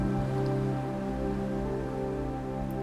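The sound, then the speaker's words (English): Soft, steady wash of ocean water gently against the shore of an island, a continuous hiss without distinct breaking waves, blended with a sustained low, humming musical drone. No one speaks. “You notice you are on a beautiful island and you can hear the ocean gently washing up on the shore.”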